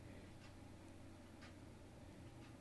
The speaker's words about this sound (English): you actually hear Triple R's clock in the background there. tick, tick.